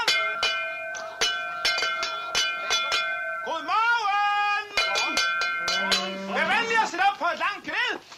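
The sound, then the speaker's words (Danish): Clanking cowbells ring repeatedly in uneven, overlapping strikes, joined midway by rising and falling mooing calls from cattle, loud, the bells and moos mingling through to the end. “Køerne står allerede og kvier sig.”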